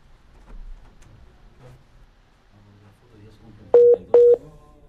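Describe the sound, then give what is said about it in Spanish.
Two short, loud electronic beeps in quick succession near the end as a WhatsApp call drops and automatically reconnects, following a stretch of faint background noise and muffled voices. “Este, ese es típico, típico como corte que se restablece automáticamente por una llamada WhatsApp, ¿ah?”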